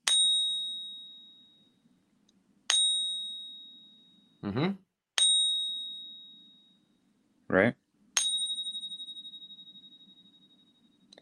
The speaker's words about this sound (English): Has that like angelic sound to it, like what you would expect an American Silver Eagle to sound like. And actually, m- the majority of them I've had have all sounded like this.